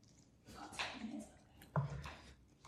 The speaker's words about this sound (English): Yeah, I'm chewing. I'm chewing. it's such good toast.